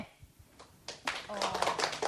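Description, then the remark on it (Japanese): Scattered audience clapping at a venue, from those who think the dollar-yen rate will rise right after an announcement, starts after a quiet moment and builds into a modest, uneven round of applause from a handful of people, with a faint voice murmuring underneath. “はい、ドル円が発表直後に上がると思われる方、拍手で。”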